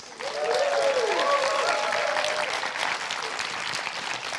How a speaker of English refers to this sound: It feels very weird to get two rounds of applause, but that's just how the podcast is structured, so pretend I only just arrived.